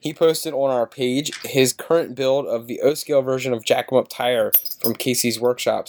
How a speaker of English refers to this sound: That's my dog shaking his head in the background.